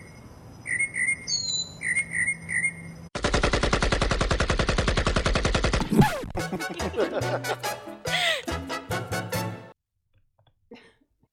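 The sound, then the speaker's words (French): A loud, sustained burst of rapid automatic Kalashnikov fire lasting about three seconds, set between stretches of bright mockingbird chirps and whistles, with no one speaking. “Et sinon, c'est une Kalachnikov.”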